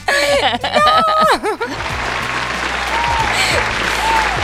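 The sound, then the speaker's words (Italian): A burst of laughing voices gives way to loud, steady crowd applause, a dense wash of clapping that continues for several seconds. “Ecco, tra l'altro questo applauso, questo applauso lanciato così”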